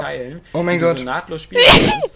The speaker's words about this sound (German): Gesundheit.